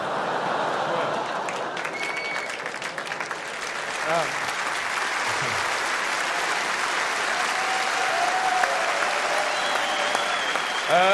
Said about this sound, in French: Applaudir là-dessus, c'est génial.